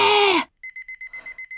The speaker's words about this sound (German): Und dann läutet's. Oh, endlich Pause. Aber was? Hä? Das ist gar nicht Pauseglocke. Das ist. Das ist der Wecker.